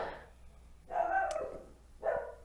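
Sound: dog barking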